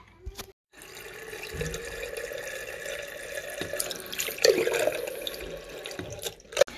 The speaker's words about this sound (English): We just need to do the next stage. This is called the sparging. Daddy, what's sparging? we're just getting the wort and we're trickling water through it just to get all of the nutrients out.